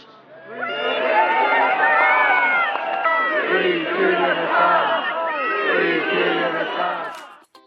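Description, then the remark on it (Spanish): A large protest crowd outside the High Court in London chants and shouts together, calling for the release of Julian Assange. Many voices blend into a loud, steady roar that holds for several seconds before dropping away at the end. “Estas propuestas se escucharon ayer afuera del Tribunal Superior de Londres.”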